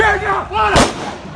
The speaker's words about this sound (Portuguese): Isso aí que eu ouvi o som de tiro perto da minha perna, né?